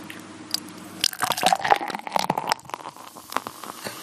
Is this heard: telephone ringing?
no